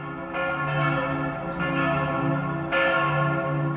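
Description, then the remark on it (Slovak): The bells of the Church of the Assumption of the Virgin Mary in Pezinok, Slovakia ring out together, their strikes overlapping into a dense, sustained wash of resonant tones, with fresh clangs every second or so. Loud and steady, no voices. “Takto znejú zvony v kostole na nebo vzatia Panny Márie v Pezinku.”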